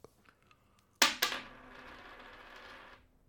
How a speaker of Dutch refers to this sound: Munt is doorgaan, kop is stop.